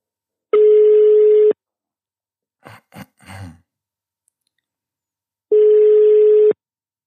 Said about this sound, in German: Ich lüte dem guten Herr jetzt mal an.